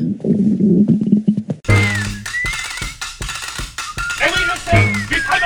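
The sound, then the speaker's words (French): A woman's low, bubbling stomach rumble gurgles steadily for a second or two, then gives way to louder voices and other busy sounds. “son ventre laissa brusquement échapper cette petite musique.”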